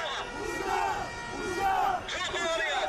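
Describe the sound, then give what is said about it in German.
A protest crowd shouting together in the street, where fires have been lit, chanting slogans such as "Democracy" and "Shame" at politicians, many voices merging into loud, sustained rising and falling chants with no pauses. “es wurden Feuer angezündet auf den Straßen, es wird getanzt, es wird auch viel geschrien.”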